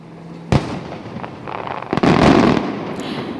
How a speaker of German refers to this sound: Mit diesem akustischen Feuerwerk verabschiede ich mich. Das ist auf jeden Fall nachhaltiger als das echte.